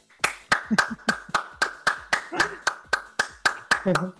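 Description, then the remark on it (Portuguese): Steady hand clapping, around fifteen crisp claps at an even brisk rhythm, like a single person applauding, with faint voice sounds murmuring underneath; a manual round of applause thanking a participant for asking questions. “Salva de palmas para você manualmente.”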